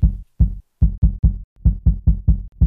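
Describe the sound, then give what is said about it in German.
A steady, muffled heartbeat picked up by a microphone held against a person's neck artery to take their pulse, low thumping pulses repeating in quick regular succession, about three per second, heavy and bassy with no talking. “Ich, ich halte mal kurz das Mikrofon an deiner Halsschlagader.”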